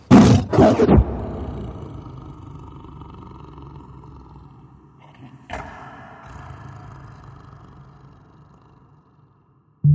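A tiger lets out one loud roar right at the start, then a low rumbling growl lingers and slowly fades, with a brief sharper noise partway through and no talking.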